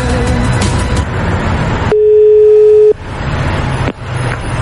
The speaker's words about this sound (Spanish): A ver, pues no, suena ocupado el teléfono.